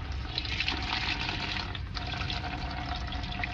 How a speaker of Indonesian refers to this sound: Namun bersyukurnya di samping kanan saya dengar suara gemercik air.